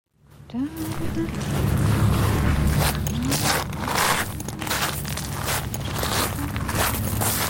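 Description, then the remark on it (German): Steady footsteps crunch and scrape along a path at a walking pace, fairly loud, over a low continuous hum, as someone takes the first steps into a garden labyrinth enclosed by cypresses on the island of San Giorgio Maggiore in the Venetian lagoon, Venice, Italy. “Ja, jetzt mache ich die ersten Schritte im Labyrinth.”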